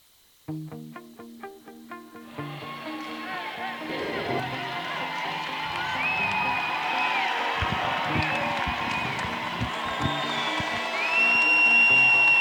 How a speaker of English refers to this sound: I forgot my earplugs. I'll tell you that. A great crowd, a great turnout for this Final Four matchup.